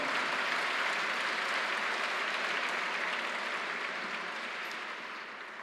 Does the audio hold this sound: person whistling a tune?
no